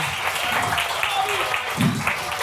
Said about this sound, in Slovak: A vy mu môžete zatleskať. Ja už to trápne je to s tým podleskom. Nechce sa vám.